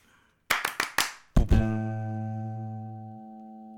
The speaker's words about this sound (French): Écoutez, on va lancer un jingle série. Sauvage. Boum, paf, pif.